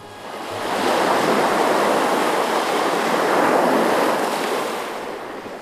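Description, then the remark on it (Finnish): A steady roar of surf washes in, swelling after the first second and holding at a loud, broad hiss before easing slightly at the end, with no voices. “Aallot ovat aikaisempaa isompia, jolloin rantatöyräät murtuvat mereen.”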